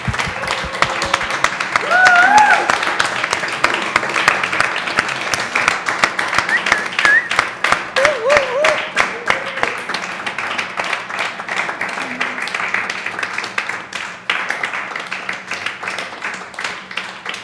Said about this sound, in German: So why don't we as just as a congregation why don't we give them a big hand?